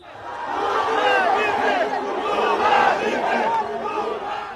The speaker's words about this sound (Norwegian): Demonstrantene bærer bilder av den tidligere presidenten i fangedrakt og roper slagord som 'Lula er en tyv'